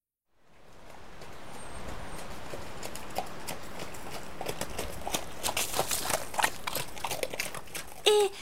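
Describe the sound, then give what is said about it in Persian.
Horse hooves trotting in a steady clip-clop rhythm on a hard surface over a broad outdoor background noise, with a brief neigh-like tone near the end. “بچه آقا اسبه داره یورتمه میره گوش کنی.”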